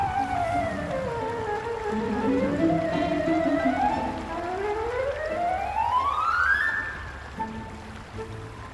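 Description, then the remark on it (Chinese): Storm wind howls in long, wavering tones that dip low and then climb to a high whine, over a steady hiss of rain, a fierce storm sweeping a small island. The sound is loud and continuous, with no voices. “风雨逐渐缓和，这三个饱受惊吓的孩子狼狈地走回营地”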